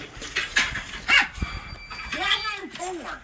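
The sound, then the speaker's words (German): A dog gives several short, high yipping barks in an irregular burst, slightly thin as if played back, with people's voices mixed in. “Der redet nicht, der kann nur bellen.”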